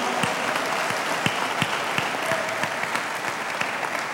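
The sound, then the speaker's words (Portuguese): An audience applauds the Lord steadily, a dense wash of clapping with sharper individual claps popping out irregularly, sustained at even loudness throughout with no voices over it. “Você pode aplaudi-lo de toda a tua vida, de todo o teu coração.”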